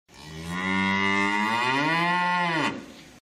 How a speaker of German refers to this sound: Da gibt es zum Beispiel die Kuhherde